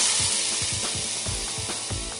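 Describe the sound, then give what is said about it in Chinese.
A loud, steady hiss of white gas spraying from a storm ice whirlwind gun aimed at a big snake, layered with rapid, evenly spaced mechanical clicks like a ratchet. It lasts about two seconds, with no voices. “兔子妮妮朝着大蛇使用暴冰旋风枪，暴冰旋风枪喷出的白色气体刚好全部被张口而来的大蛇吞了进去。”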